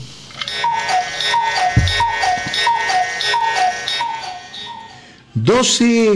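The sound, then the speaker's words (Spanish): A cuckoo clock ticks steadily while bright, evenly spaced chiming notes repeat for several seconds, marking the hour; a loud voice cuts in at the very end. “un momento importante, la hora. Claro, ¿y con quién? Con el pajarito cucú.”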